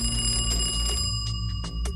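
A telephone rings in a family's home, heard in an original police recording of the call: a steady, bright electronic tone holding several high pitches, over a low hum, without any talking.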